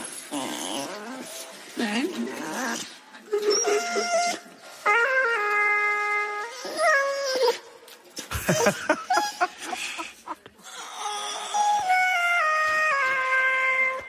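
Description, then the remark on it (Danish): A dog named Maggie howling, pitch-corrected by autotune, jumping between flat, robotic-sounding notes like a sung melody, in several fairly loud phrases with short pauses between them. “Så skal du høre Maggie, når hun synger, altså hunden synger igennem autotune.”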